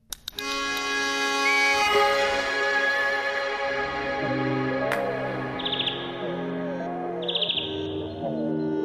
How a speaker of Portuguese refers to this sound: desta vez vamos até aos jardins do Parque de Serralves, no Porto, ver e escutar de perto uma ave que é das mais fáceis de avistar no nosso território, o verdilhão. Adora sementes, frutos e insetos. O canto dos machos é inconfundível.